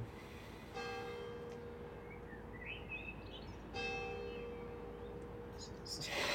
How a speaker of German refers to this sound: Hört man jetzt die Kirchenglocken. Ich glaube man hört schon, aber ich rede einfach drüber.